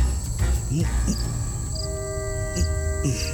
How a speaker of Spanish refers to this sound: Finalmente, ya en cama, cuento las estrellas, escucho el cantar de los grillos y descubro la magia del silencio.